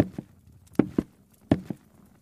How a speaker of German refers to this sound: Die ältere Frau erhebt sich und nähert sich mit langsamen Schritten dem Tisch.